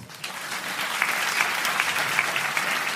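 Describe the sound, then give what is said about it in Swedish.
An audience taking part in an applause poll, where those who are 'gal' are asked to clap, claps steadily for about three seconds, a dense, even patter of many hands with a few sharper claps standing out, rising slightly after a softer start. “Kan alla som är eh, gall applådera?”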